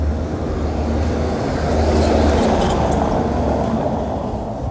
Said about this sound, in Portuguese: E aí faz muito barulho, os pneus dos carros no chão faz muito barulho. Então quando passa passo eu tenho que dar uma, uma pausa e uma enrolada para recuperar.